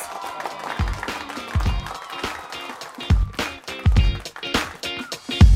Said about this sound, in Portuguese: Palmas!